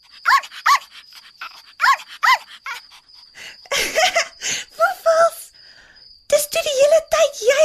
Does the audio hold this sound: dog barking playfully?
yes